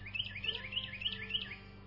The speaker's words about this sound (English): I recorded that little bird that you hear